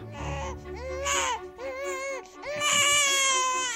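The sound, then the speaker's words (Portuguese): A newborn baby cries loudly in several strained, wavering wails with short breaths between them, the crying rising and intensifying toward the end. “Em algum lugar, um bebê está prestes a nascer.”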